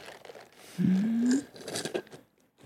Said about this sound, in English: You can do that in one like. Okay, hold on. Slurp.